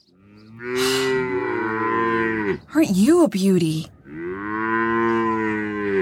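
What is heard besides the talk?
cow mooing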